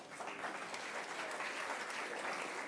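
Steady applause from an audience, a dense wash of many hands clapping at an even level for a few seconds with no voices on top.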